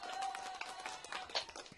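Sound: round of applause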